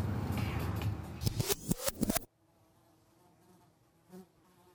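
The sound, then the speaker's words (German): Loud insect buzzing fills the first couple of seconds with pulsing swells, then cuts off abruptly to a faint, quiet background with a brief soft blip near the end. “Insekten. Seit Millionen von Jahren bevölkern sie unsere Erde.”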